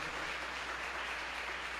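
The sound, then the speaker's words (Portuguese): An audience applauding to the Lord, a steady wash of many hands clapping together at a moderate, even level with no one speaking over it. “Em nome de Jesus, aplauda ao Senhor, glória a Deus.”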